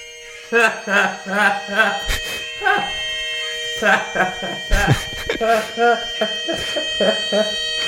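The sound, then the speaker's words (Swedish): Bagpipes play a slow, swelling melody over a steady drone, the intro of a record, with a high, sustained whine of guitar feedback ringing underneath, loud throughout. “Eh, lite udda kombon. Säckpipa, rundgång.”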